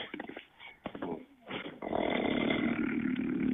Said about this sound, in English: How do you all talk in here with a fucking bear snoring in the background?